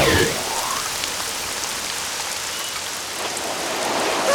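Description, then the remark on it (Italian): Heavy rain pours down steadily, a dense, continuous hiss of drops drumming on a surface, fairly loud with no pauses throughout. “Ora creerò una grande pozza d'acqua con la mia pioggia battente!”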